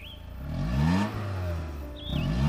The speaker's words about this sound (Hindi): फिर उस गाड़ी में बैठे एक साथ वहां की तरफ चल निकले